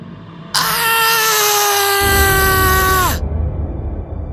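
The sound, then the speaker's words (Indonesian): A person, opening a door, lets out one long, loud scream of terror, held steady for nearly three seconds before the pitch sags and breaks off, with a low rumbling drone underneath. “Teriakku sejadi-jadinya.”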